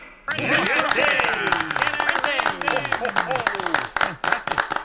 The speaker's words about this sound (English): This brings rapturous applause and a standing ovation that lasts about a minute. Clearly a popular decision.